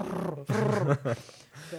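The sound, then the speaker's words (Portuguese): A person imitates a cat's purr with a low, rumbling voice, in a few fairly loud bursts that sound almost like a growl, broken by short pauses. “eu, mãe, eh, se esse é o barulho dos gatos.”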